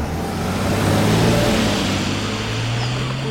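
A car engine drones, swelling louder as it accelerates and then easing off slightly as it passes, with no voices.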